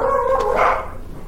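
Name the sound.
dogs barking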